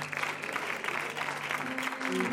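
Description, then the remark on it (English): A crowd applauds steadily, many hands clapping at once in a dense, continuous wash of sound that stays loud throughout, with faint tones and voices underneath. The crowd is putting their hands together for the Lord. “Why don't we put our hands together for the Lord and just say, Preach to me, Pastor.”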